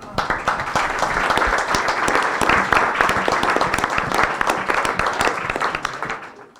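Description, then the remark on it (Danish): An audience at a panel event applauds themselves and three panelists steadily, many overlapping claps forming a dense, sustained roar that holds for several seconds before fading out at the end. “Jeg synes bare, I skal fortsætte med at klappe af jer selv og af de tre panelister her.”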